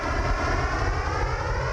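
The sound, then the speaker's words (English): A steady, loud drone of an airplane in flight to Dublin, Ireland, a continuous engine roar with layered tonal hum and no pauses, filling the whole moment with no voices. “All right, let's get on the plane. We're going to Ireland.”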